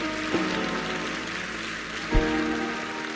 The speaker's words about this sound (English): Now, as I pray, I want you to come up and congratulate these mothers who have spoken powerfully this morning. Didn't you enjoy them? Give them a hand clap. Didn't you enjoy them?